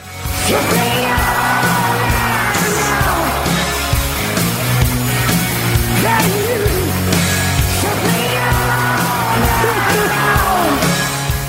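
A loud hard rock song plays steadily, with dense distorted guitars, a pulsing low bass line and a raspy, shouted lead vocal riding on top throughout.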